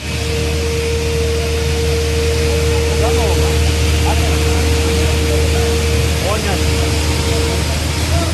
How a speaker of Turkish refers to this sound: Kuşlar gidiyor. Ve artık köyde iş makinesi seslerinden başka bir şey duyulmuyor.